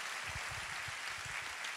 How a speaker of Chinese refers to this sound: 阿门！拍手把荣耀归给他，好不好？哈利路亚。